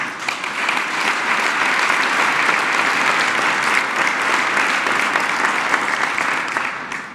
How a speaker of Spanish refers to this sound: Agradecer también mucho a las compañeras y compañeros del gabinete que nos acompañan el día de hoy. Un aplauso también para todos ellos.